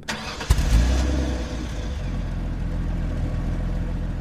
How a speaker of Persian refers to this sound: سوار ماشین شدیم ماشین رو روشن کردم ولی تکون ندادم